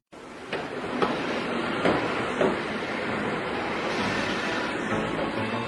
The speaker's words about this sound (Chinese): 火车在一个小站停了下来，驾驶员拿着一个银白色的圆环，和月台上的人交换。